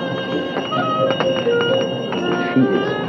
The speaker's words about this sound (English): The welcoming music and finger chimes of the belly dancer mark the beginning of this most unusual dining adventure.